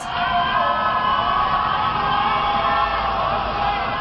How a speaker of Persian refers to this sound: تنها یک شب بعد از انتخابات ریاست جمهوری سال 88 معترضان به نتایج این انتخابات روزها با نشانه های سبز به خیابان آمده و شبها روی پشت بام یا تراس خانه هایشان الله اکبر میگوید